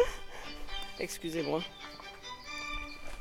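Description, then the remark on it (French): A mobile phone ringtone plays a steady electronic tune throughout, at moderate volume, while a person briefly speaks over it. “C'est le téléphone.”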